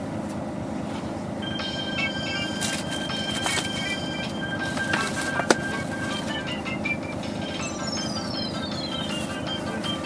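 Someone's mobile phone ringtone melody chimes in clear electronic notes for several seconds over the steady engine rumble of a stationary Toei city bus waiting to depart, with no one speaking.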